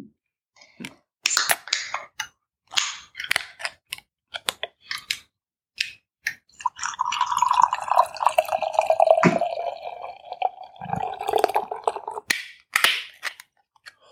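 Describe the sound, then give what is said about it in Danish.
A few sharp clicks and taps, then beer pours from a can filled right to the top for about five seconds, a steady glugging stream that fades out, followed by a couple more light knocks. “Og den er fyldt, den her dåse. Den er fyldt helt til, helt til toppen, den jeg sidder med her.”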